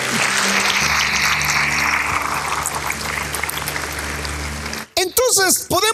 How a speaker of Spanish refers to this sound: Oh, dele una ofrenda de palmas al Señor.